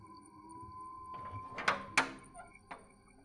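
A wardrobe door is slid open by a hand coming out from inside, with a soft rolling rumble and then a few sharp knocks and clatters, over a steady low humming drone.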